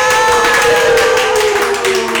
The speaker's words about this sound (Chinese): 所以我们现在用最热情的掌声，来，在场的来宾，你们要代表十万人哦，来，我们掌声欢迎我们的来宾